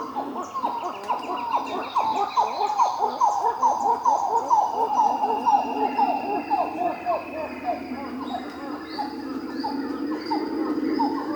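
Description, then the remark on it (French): Titi monkeys (Callicebus), small New World monkeys locally called Zogi Zogi, call in a forest in a steady, rapid series of pulsing hoots that rise and fall in a continuous chorus, loud, with a faint whine of other forest sounds behind. “Son nom local est Zogi Zogi, ou brun, Un petit singe calicèbre, typique du Nouveau Monde.”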